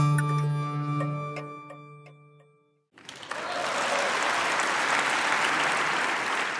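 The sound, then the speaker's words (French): Sustained ringing musical tones fade out over about three seconds, then the assembly of the Bundestag in Berlin bursts into loud, steady applause as Angela Merkel is elected chancellor of Germany on 22 November 2005, a dense crackle of many hands clapping that continues to the end. “Sous les applaudissements de l'Assemblée, Angela Merkel vient d'être élue chancelière d'Allemagne avec deux tiers des votes des députés.”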